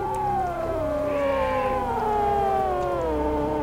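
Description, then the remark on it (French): Arctic sea ice, cracking and moving, creaks and sings in long, eerie, wailing tones that glide slowly in pitch, layered with ringing overtones and a brief higher warble midway, steady and fairly loud with no voices. “Là-bas, la banquise craque elle bouge et parfois, elle chante d'étonnantes mélodies.”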